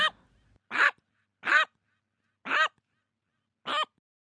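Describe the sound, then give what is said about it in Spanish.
A parakeet squawks five times, loud: short, harsh, raspy calls separated by brief pauses of uneven length, with no other sounds around them. “Perico.”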